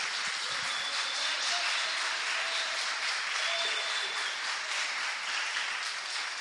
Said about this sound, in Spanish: Dele un aplauso al rey, dale un aplauso al rey.